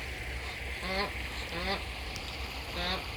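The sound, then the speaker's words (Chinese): A duck named Diandian, looking for her mate the drake, quacks three times in short, raspy, evenly spaced calls, each a buzzy harmonic burst, over a steady low background rumble with no talking. “这是点点点点在找鸭爸的声音，好不好笑？”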